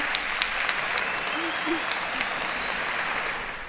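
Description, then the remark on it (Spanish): An audience applauds the people who took part, a dense wash of many hands clapping at an even loudness for a few seconds before easing off slightly at the end. “Un aplauso, por favor, a los que participaron.”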